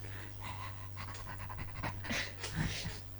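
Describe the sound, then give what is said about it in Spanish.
A female dog pants rapidly and steadily, a quick rhythmic run of breathy huffs over a constant low electrical hum. “la perra seguía y seguía.”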